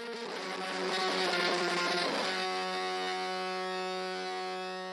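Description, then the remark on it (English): A dry, buzzy electric guitar with an octave effect plays a quick, dense run of notes, then settles into one thick sustained note that rings steadily to the end. No voices. “And I put an octave pedal on it. So what you hear now is dry.”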